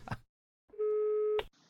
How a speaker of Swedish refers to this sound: Men eh, det ringer nämligen in en kund nu, så skulle inte du kunna ta det